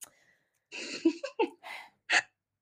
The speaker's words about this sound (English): On a side note, I don't know if you heard Bo sneeze.